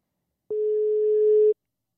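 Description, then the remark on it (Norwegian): A single steady telephone ringing tone as a phone call is placed, a flat mid-pitched beep lasting about one second, then silence. No voices. “Skal vi se om han svarer med en gang, eller om vi må inn med noe redigering her.”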